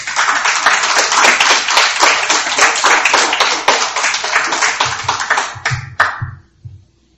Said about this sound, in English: We've got a round of applause.